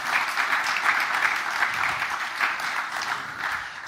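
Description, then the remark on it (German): A church audience at a September service applauds itself steadily throughout, a dense, even wash of many hands clapping at moderate loudness with no voices over it. “Ihr dürft euch gerne mal einen Applaus geben, weil es einfach großartig, dass ihr wieder da seid hier zum Gottesdienst im September.”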